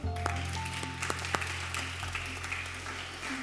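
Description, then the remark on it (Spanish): A crowd applauds with dense, steady clapping that carries on for a few seconds over a low electrical hum, with no one speaking. “Aplauso.”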